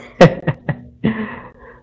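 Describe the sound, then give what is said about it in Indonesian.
A person coughing during continual rainy weather: a burst of four harsh coughs in quick succession, the first loudest, then two shorter hacks and a final longer, raspy cough that trails off into quiet. “batuk-batuk cuaca hujan terus ini”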